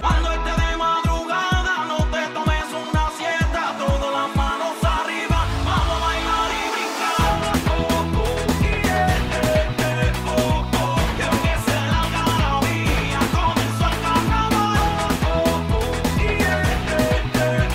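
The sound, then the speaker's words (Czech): An upbeat summer reggaeton-style pop track with a thumping, syncopated dance beat plays loud and continuous, a short break around seven seconds before the full groove kicks back in with dense layered instruments. “já miluju všechny takovýhle letní jako vypalovačky, zvlášť si to jako reggaeton nebo tak.”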